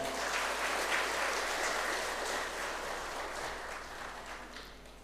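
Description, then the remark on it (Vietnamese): A crowd applauds steadily, a dense, continuous patter of many hands clapping at fairly even loudness, tapering slightly toward the end with no voices over it. “nếu quý vị thấy um, đó là một cái nhu cầu à, cần phải thực tập và thực tập là mang lại kết quả cao quý đó thì hãy dâng cao một tràng vỗ tay để tin tưởng và làm theo”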